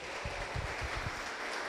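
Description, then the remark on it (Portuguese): A crowd claps together in sustained applause celebrating the Lord at an evening service, a dense wash of many hands with a few stronger beats standing out, steady throughout. “Então celebra ao Senhor com palmas nessa noite.”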